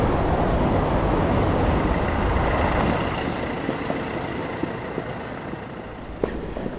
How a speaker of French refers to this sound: Donc là, on est dans un tunnel, on longe un tunnel que les voitures empruntent avec enthousiasme. C'est très bruyant.